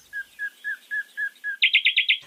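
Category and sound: bird, bird calls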